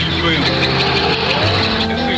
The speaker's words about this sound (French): On entend les pales d'un hélicoptère qui vient de se poser dans l'enceinte de l'établissement. Le pilote est en fait pris en otage par trois hommes armés de fusils d'assaut.